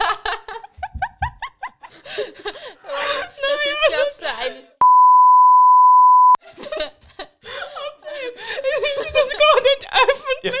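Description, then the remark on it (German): A steady, loud censor bleep tone of about a second and a half cuts through lively, animated conversation, with laughter-filled talk continuing before and after it. “ja, ja, wenn wir das piepsen.”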